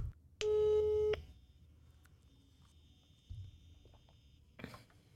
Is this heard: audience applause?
no